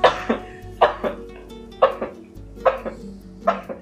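A run of five small, squeaky sneezes from a person, each a quick double burst, repeating at a steady pace and sounding much like a puppy's little sneezes, with no talking.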